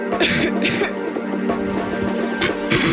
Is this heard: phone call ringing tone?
no